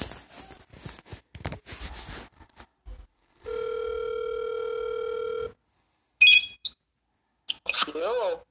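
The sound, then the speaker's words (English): A steady telephone dial tone hums for about two seconds after a stretch of talking, followed by a few short electronic beeps and clicks as several guests are dialed up, then faint voices. “So, anyway, I'm going to get the guys dialed up here.”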